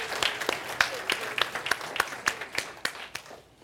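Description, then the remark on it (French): Audience applause for a musical group, with sharp, fairly steady claps at a brisk, almost rhythmic pace over a soft background patter, tapering off at the end. “peut donner un d'acclamation à notre groupe musical.”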